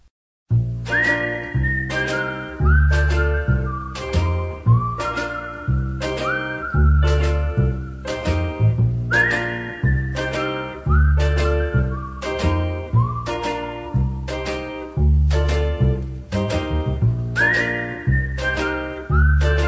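A clear, melodic whistled tune carries over a full band with steady bass and rhythm, the whistling bright and prominent at the front of the mix throughout.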